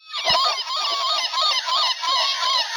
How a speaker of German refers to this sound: das ist eine Möwe, wo so ein Soundmodul drin ist